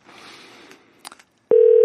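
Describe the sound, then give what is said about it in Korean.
A phone line rings back with a loud, steady electronic tone that starts abruptly near the end, after a stretch of soft line hiss and a few brief clicks, as the radio show FM 대행진 places a surprise call to a listener. “저희가 깜짝 전화 연결 한번 해봅니다. 지금 뭘 하고 있을지 전화 걸어보도록 하겠습니다.”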